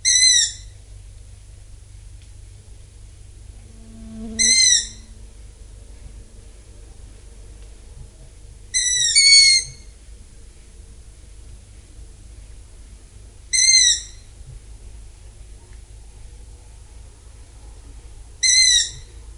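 Long-eared owl chicks give five high, squeaky calls spaced about every four to five seconds, clear against a quiet background with a low steady hum and no voices; recorded on 10 July in Kõrveküla, Tartu County, Estonia.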